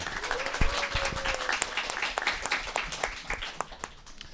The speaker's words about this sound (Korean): 네, 오늘 불금인데 여기까지 많은 분들이 와주셨습니다. 정말 이 박수 소리가 엄청난데요.